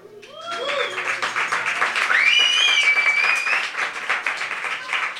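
An audience bursts into sustained applause for a performer about to play, dense clapping rising quickly and holding steady, with a few high whistles and cheers cutting through around the middle.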